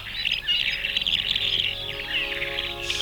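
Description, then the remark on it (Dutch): Small birds chirp and twitter on a Sunday morning in a busy, continuous chorus, with overlapping high-pitched calls at a steady moderate loudness and no voices. “Dit is, kijk, vogeltjes.”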